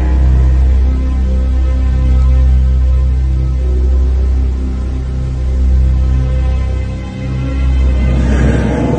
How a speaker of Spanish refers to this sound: Solo sé que en el coche, conduciendo aceleradamente, comencé a retomar parte del control de mí mismo.